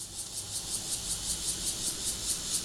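Cicadas chirp in a steady, high-pitched buzzing drone, pulsing in quick regular beats about six times a second, with a low rumble underneath and no voices.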